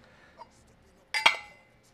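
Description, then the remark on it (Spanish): A short burst of hard clinks and clatter as ice cubes drop into a small ice bucket, with a faint tap just before and quiet afterward. “agilizar el proceso de poner hielos, les recomiendo tener una palita, tampoco son muy caras.”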